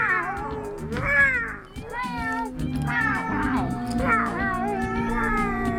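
A cat meows repeatedly and insistently, a string of drawn-out, wavering cries over a low steady hum, with no talking.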